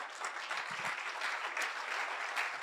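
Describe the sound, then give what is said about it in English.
A crowd of people claps steadily, a dense wash of many hands applauding at once with no pauses, even in loudness throughout, giving God a round of applause. “And look, the Bible says that, let's give God a round of applause.”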